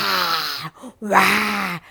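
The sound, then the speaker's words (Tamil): A voice imitates a trapped lion king's groaning cry with two drawn-out, wavering moans separated by a brief pause, loud and strained, followed by a short softer breath. “என்னடா அது நம்ம சிங்கராஜா கத்துற சத்தம் கேட்குறது சிங்கராஜா எப்படி கத்துறது வா”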